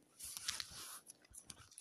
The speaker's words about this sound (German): Hör mal eine Schere.